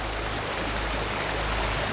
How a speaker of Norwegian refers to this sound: Vi nådde elven uten uhell. Den hadde steget faretruende på den tiden vi hadde vært fremme. Vannet fosset nå om lag 10 cm over isbroen, men vi kom oss bra over likevel.